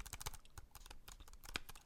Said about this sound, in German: Erstmal sind sie sehr gut verarbeitet. Die sind in so einem Aluminium-Finished-Gehäuse, ähm, sehen also einerseits schick aus. Der Tastendruck, ich weiß nicht, ob ihr das hier hören könnt,